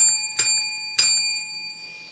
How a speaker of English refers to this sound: a prophetic word teaching this morning, and here's the bell.